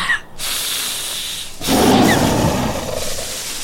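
A sabre-toothed tiger roar, from a huge brown-furred predator up to 2 metres long and over 280 kilos, crouched in thickets on a hilltop in prehistoric California, apparently hunting: a deep, breathy growl that surges louder after a brief pause and rumbles on, with a hissing, snorting edge and no talking.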